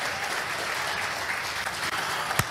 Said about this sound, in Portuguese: Aplauda Jesus porque ele merece, igreja. Aplauda Jesus porque ele merece, igreja.